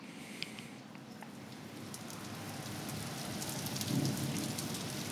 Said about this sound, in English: Thunder. Church, Church bells in the distance. More thunder. You're like, interesting. what is this? In- interesting, you should ask. yeah. You're like, what's going on? It's just rain. It's just rain.